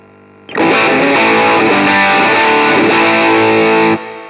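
A loud, heavily distorted electric guitar chord, played with the guitar's volume turned up to ten, rings out for about three and a half seconds, thick and saturated, then cuts off abruptly, leaving a faint amp hum.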